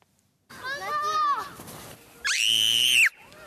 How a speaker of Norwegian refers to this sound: Det kan gå gjennom marg og bein, men nå forteller Arbeidstilsynet at barneskrik faktisk har sprengt trommehinna på en ansatt i en barnehage i Trondheim. En unge på armen med sterk stemme nært øret førte til hørselsskade.